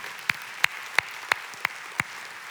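Applause for spouses standing alongside the individuals being honored, heard as six sharp, evenly paced claps, about three per second, each crisp and bright over a faint hiss, with no voices.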